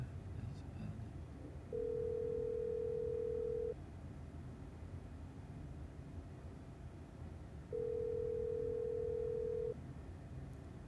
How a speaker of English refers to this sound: No one's picking up. Must be the bar's actual landline. Damn. I was hoping it might be one of those numbers that gets bounced back to the manager's cell phone when they're off hours, but no such luck.